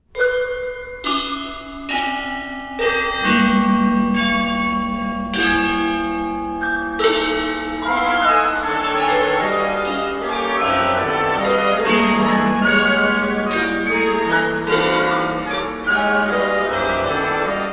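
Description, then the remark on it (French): Balinese gongs, as heard in music by 20th-century French composer Olivier Messiaen, ring out in a dense, shimmering layer, struck repeatedly with bright metallic attacks over sustained low humming tones, steady and fairly loud throughout, with no voices. “Un musicien comme Olivier Messiaen, français du XXe siècle, essentiellement dans les années 50, nous fait écouter par exemple des gongs balinés”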